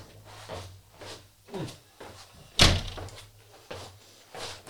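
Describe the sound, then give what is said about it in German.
A door is shut with one sharp, loud thud near the middle, surrounded by softer handling noises and light knocks. No one speaks. “Weil Die Tür ist nicht zu.”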